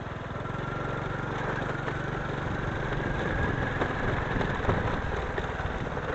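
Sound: motorcycle engine idling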